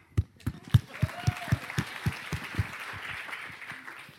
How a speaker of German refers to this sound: Ein Applaus noch